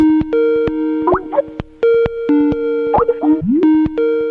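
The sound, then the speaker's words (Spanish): A telephone rings with steady electronic tones, interrupted by sharp clicks and brief warbling pitch slides, loud with no voices. “o, la mera trampa para contestar el teléfono.”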